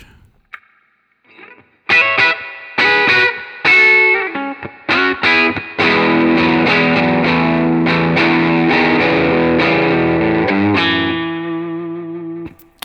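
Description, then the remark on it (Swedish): A distorted electric guitar played on the bridge pickup: a few sharp chord stabs, then a loud sustained chord that rings out and fades, with bright, gritty overdrive and no talking. “ta stallet då och gör samma sak.”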